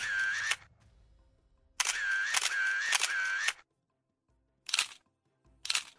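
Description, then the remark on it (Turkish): Crisp camera shutter clicks: one shot, then a quick rapid-fire burst, followed by two more single clicks with short pauses between them. No one speaks. Photos of Şamil Tayyip and Şaban Özdil posing together at the Bizim Yaka Kocaeli newspaper office. “Gazete bürosunda fotoğraf makinesine birlikte poz verdiler.”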